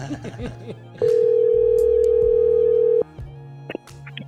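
A single loud, steady telephone ringing tone sounds for about two seconds while a call is placed during a live radio broadcast, with faint background voices and room noise before and after it.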